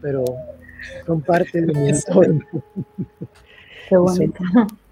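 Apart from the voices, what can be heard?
birds calling outside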